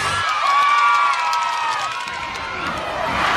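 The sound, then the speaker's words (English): A loud, continuous din of a protest crowd outside a window, many voices shouting and cheering together, with overlapping high calls and whoops, steady throughout and heard through an open window. “That protest is pretty noisy. I'll close the window so it's not so loud.”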